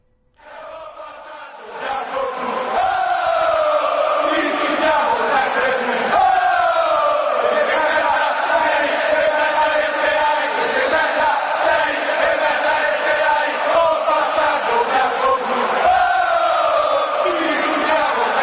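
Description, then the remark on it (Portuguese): A huge stadium crowd of AS Roma football fans sings a chant in unison aimed at their rivals Lazio, loud and sustained, swelling in after a brief quiet start and carrying on steadily with a roaring, echoing massed-voice sound. “A gente vai ouvir agora a torcida da Roma cantando.”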